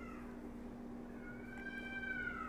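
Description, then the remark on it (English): A cat caterwauls outside in a long, wavering, rising yowl that grows louder toward the end, over a steady low hum with no talking. “You hear that damn cat, right?”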